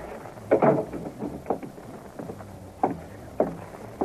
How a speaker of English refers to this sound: Now, here, I'll close the door.